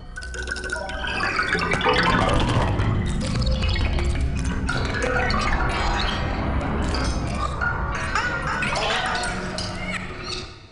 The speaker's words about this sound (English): I can play with a, a violin bow. I don't have to use the chopsticks, so we have this sound. And with a bank of live electronics, I can change the sounds radically.